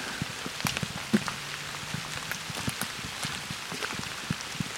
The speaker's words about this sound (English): As you can hear, it's raining a bit.